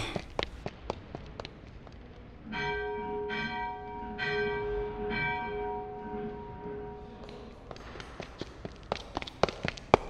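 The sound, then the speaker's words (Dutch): Church bells ring out in a series of resonant strikes whose tones hang and overlap for several seconds, with sharp clicks and tapping noises before and after. “Oh nee, nu krijg ik ook zo'n zin om klokken te luiden.”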